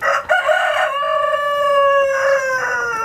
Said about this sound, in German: Entschuldigt. Er muss was dazu sagen. Mitteilungsbedürftige Hähne, wir kennen das ja.